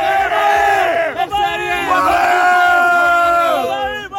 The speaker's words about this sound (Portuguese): Tô aqui com a galera aqui comemorando vitória!